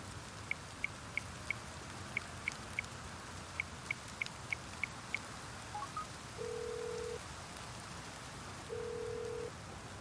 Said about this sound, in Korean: 신호음이 아홉 번을 울리고서야 여자의 목소리가 들려왔다.